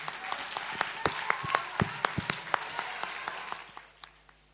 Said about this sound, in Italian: Un applauso, è stata coraggiosa, eh?